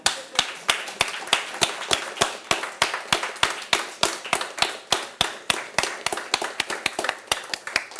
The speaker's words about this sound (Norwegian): Nå skal vi sikre oss at du får en skikkelig applaus her. Ja.